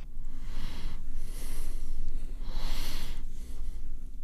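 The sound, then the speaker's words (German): A man huffs and snorts heavily through his nose, a few long, loud, breathy exhalations with short pauses between them and no talking. “Da schnauft er nur.”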